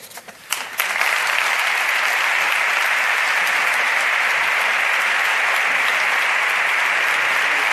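A large audience bursts into sustained applause after a brief quieter start, the clapping swelling within a second into a dense, steady roar of many hands that holds loud and even throughout.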